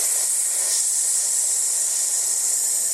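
A steady, unbroken hiss of breath pushed out through pursed lips while exhaling in a breathing exercise, held evenly for about three seconds, fairly loud, with no talking.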